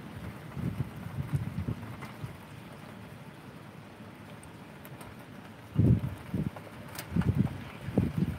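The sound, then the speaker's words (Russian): Steady hiss of rain with low, rolling rumbles of thunder swelling in several bursts, loudest near the end. No one speaks. “Да, под дождь будет больше расти, как грибы.”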